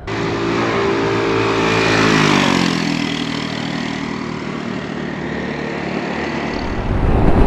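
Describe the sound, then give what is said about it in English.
A small scooter on 13-inch rims drones steadily while riding, its engine pitch rising and falling gently with throttle over a constant rush of wind and road noise, with no talking. “one thing is apparent with this scooter is that you are on 13 inch rims which um, is fine out in the city but on the motorway it's nice to have something a bit bigger to make it a little less responsive”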